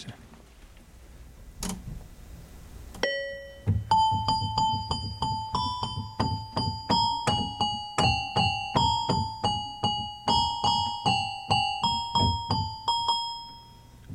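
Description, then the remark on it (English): A bright, plinking toy piano or electronic keyboard melody plays steadily, each note striking with a sharp attack and quick decay, repeating in an even rhythm over a low sustained tone. “This sounds like a sort of a toy piano type thing, or electronic keyboard maybe.”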